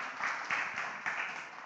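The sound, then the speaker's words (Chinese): An audience at an early-morning prayer service applauds God with steady, dense clapping that keeps up evenly throughout, swelling slightly in a couple of spots, with no talking over it. “我们给上帝一个热。的掌声，哈利路亚！”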